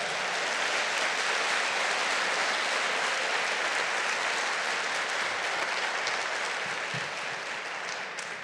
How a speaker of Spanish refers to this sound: Denle un fuerte aplauso al Señor.